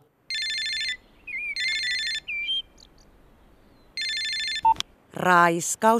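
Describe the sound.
A telephone rings in three short, bright electronic bursts with pauses between them, fairly loud. A voice briefly speaks right after the last ring.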